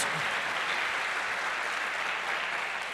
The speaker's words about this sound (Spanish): ¿Cuántos dicen amén? Eso se merece un fuerte aplauso al que vive por los siglos de los siglos.